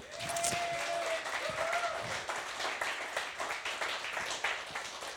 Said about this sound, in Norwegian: Mens hun kom opp, så må dere gi henne en stor applaus. Og halvparten av dere vet kanskje ikke hvem hun er, men ta og gi henne en applaus.